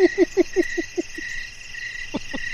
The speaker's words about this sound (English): Oh no, they've Oh. come to ruin the harvest. There's so many crickets.